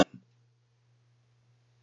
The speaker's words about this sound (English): Because he, he just sounds like he needs to clear his throat.